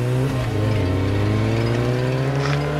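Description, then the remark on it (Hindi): A motorbike engine is started and ridden straight off to a cinema hall, rumbling loudly and holding a steady droning pitch with slight rises as it revs, continuous throughout with no voices. “पता नहीं रोहन के मन में क्या आया कि वो वहां से बाइक स्टार्ट करके सीधे सिनेमा हॉल चला गया”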